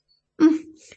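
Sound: sneeze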